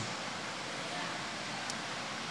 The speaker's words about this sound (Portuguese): Bendito seja Deus por esta chuva forte que cai.